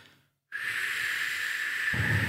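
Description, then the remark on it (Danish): A long, steady hissing breath is pushed out through the teeth, fairly loud, held evenly for nearly two seconds after a brief moment of silence, breathing out from the belly during a speech-breathing exercise. “Nu skal du gøre det samme med maven igen, men den her skal du puste ud, så jeg vil have dig til at sige,”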